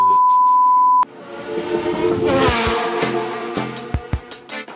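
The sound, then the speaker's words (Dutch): A steady electronic beep lasts about a second, then the high-pitched engine of a Ferrari Formula 1 car screams up through the revs, loud, ending in several sharp throttle blips. “Nee, maar eh, ik wil liever die, eh, die Ferrari in zijn luchthapper even”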